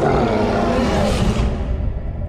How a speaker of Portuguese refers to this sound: Aquela criatura dá um rugido que ecoa por todo aquele ambiente e atravessa a alma de vocês.